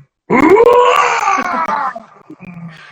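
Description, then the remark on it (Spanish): A single loud, sustained shout of support from one voice, rising in pitch and held for about a second and a half before trailing off into quieter murmuring sounds. “No manches, mira, te amamos, Ahí le va un grito de apoyo.”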